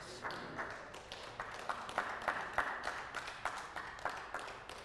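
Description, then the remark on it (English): A church audience, young and old, claps together during a sermon in a steady rhythmic beat, roughly two or three claps per second, soft and crisp over a low background murmur. “I like those kind of claps.”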